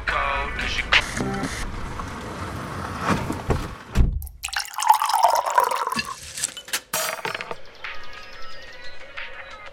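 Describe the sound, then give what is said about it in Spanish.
Water of a large creek in the Valle de Uco, with views of the Andes, trickles and splashes in a steady, uneven babble, with occasional louder gurgles and drips mixed into the continuous flow. “podría estar todo el día acá con una mesita sencilla al lado del arroyo, el viento que suena entre la vegetación”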